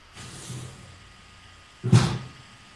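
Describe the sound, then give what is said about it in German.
Kitchen noises as someone fetches vodka: a soft scrape or rustle early on, then a sharper knock like a cupboard door closing near the end, with no talking. “Ja, ja, ich höre Küchengeräusche.”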